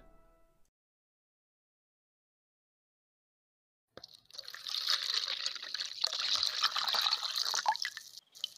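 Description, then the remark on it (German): After a few seconds of silence, fresh spring water is poured steadily for about four seconds, a bright splashing trickle that stops abruptly. No one speaks. “Quellwasser-Goldbeere. Frisches Wasser aus dem Breland.”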